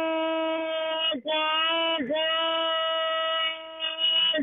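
A truck's air horn blares in one long, loud, steady blast, its brassy, buzzing tone briefly dipping twice before holding on to the end.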